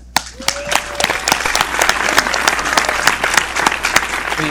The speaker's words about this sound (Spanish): Un aplauso para mi socio